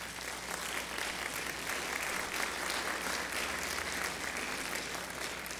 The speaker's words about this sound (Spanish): Demos otro aplauso fuerte al Señor.